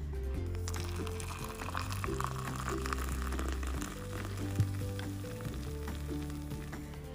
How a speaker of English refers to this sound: And now that that is um, ready to go, then I pour my hot cup of coffee. And I guess, oh, so this, my friends, is the sound of heaven.